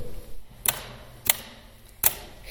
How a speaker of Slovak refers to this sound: Máme tu aj písací stroj